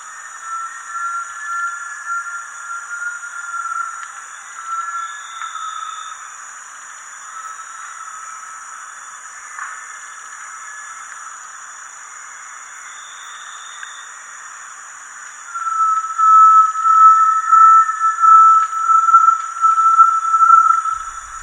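Great tinamou whistling calls, long pure tremulous notes drifting through a steady high insect hiss, growing louder and fuller toward the end, with no voices.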